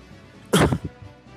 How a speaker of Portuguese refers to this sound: Nossa, na hora que eu fui tossir, eu apertei o botão.